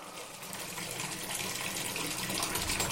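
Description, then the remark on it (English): Bath water splashes and rushes steadily, a continuous watery wash that holds at an even level for the whole stretch, with no voices. “Let me soak you back. Far away in the land of bubbles.”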